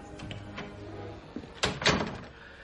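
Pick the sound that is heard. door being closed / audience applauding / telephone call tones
door being closed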